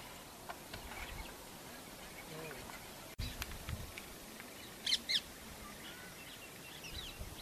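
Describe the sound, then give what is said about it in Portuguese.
Indian parrots give a couple of short, shrill squawks midway through, heard over steady outdoor background noise with faint scattered chirps. “Faltou dizer que os aditos são papagaios da Índia que dão cabo das culturas de papoilas porque ficam muito felizes ao comer as sementes cheias de ópio.”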